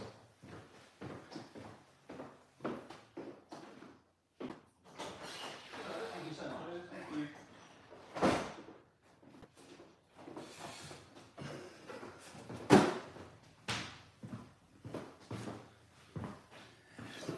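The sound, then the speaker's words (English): A door opens and closes with a couple of solid thuds as someone comes to the door, surrounded by shuffling, clattering handling noises and faint muffled voices. “If I had to give you just one sec, there's just someone at the door.”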